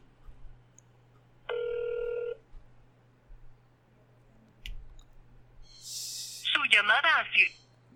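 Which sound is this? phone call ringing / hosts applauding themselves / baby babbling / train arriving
phone call ringing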